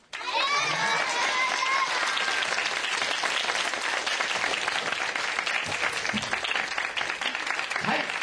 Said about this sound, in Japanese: それでみんな拍手でありがとうございましたって言って拍手しようか。